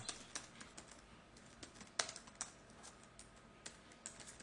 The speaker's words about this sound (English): Sorry, I can't get the hang of this uh, keyboard.